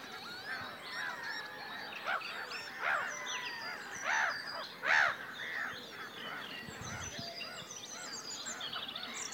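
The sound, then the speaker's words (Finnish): A large flock of geese honks and calls in a dense, overlapping chorus, with a few louder calls standing out against a steady background of other birds, as the geese fly at different heights and most of them come down onto the surface of the water. “Ja no nyt kun katsoo kiikarilla, niin koko kiikarin täydeltä ne hanhia tässä oikealle eri korkeuksilla, ylhäällä ja alhaalla.”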